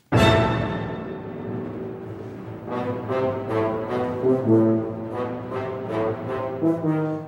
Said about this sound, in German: Ich habe mal hier was mitgebracht von Stravinsky. Mhm. Und zwar ähm, eine kurze Sequenz vom Feuervogel. Und das klingt so.